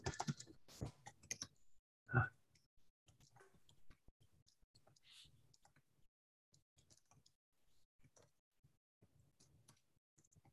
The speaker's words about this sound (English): I'm just kind of typing this out for people, just as reference, right?